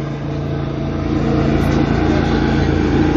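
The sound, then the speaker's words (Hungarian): A motorboat engine drones loud, a steady low rumble with a throaty hum that swells slightly as the boat passes, with no one talking. “Várjál, most egy hajó.”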